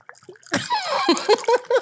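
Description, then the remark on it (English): A margarita pours and splashes into a large glass, a brief burst of sloshing and splattering, starting after a quiet moment and ending in a few short gushes. “it's a big glass, everybody. You guys, he's not going pee. That's his margarita.”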